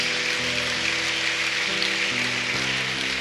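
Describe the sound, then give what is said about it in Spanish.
A crowd claps steadily in a dense, crackling wash of applause given to God, with sustained music chords shifting underneath and no one speaking. “sí, dale un aplauso a Dios”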